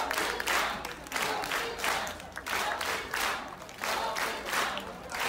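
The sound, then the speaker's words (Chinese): A large crowd at a lecture event roars steadily, cheering and clapping in loud, regular surges about twice a second, like rhythmic chanting. No single voice stands out from the noise. “再看一下，人真的很多哈。声音都有嘛，对不对？”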